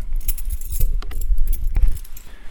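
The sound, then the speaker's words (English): Keys jangle and clink in irregular bursts of bright metallic rattling while a door is locked with the left hand, with a few sharper clicks over a steady low rumble; no one speaks. “seem to be able to lock my door with my left hand.”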